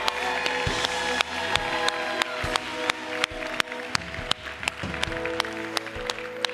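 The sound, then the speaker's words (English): Audience applause at Awaken Church for the speaker's wife fills the whole stretch, a steady wash of clapping with sharper individual claps popping out, over a faint sustained musical tone underneath. “Can I get a round of applause for my beautiful wife”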